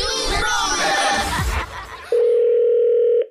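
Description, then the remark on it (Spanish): A busy, crowd-like murmur gives way to a steady, loud single-pitched telephone ringback tone, from a call to a man who installs cable, holding for about a second before cutting off. “Ok, estamos llamando a este tipo que instala cable, pero que usa el carro de la compañía también para transportar gente en Uber.”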